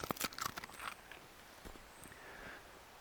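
Quiet crisp crunches of Euro, a dog, chewing a biscuit, several rapid cracking bites at first that thin out into softer, sparser chewing noises. No voices.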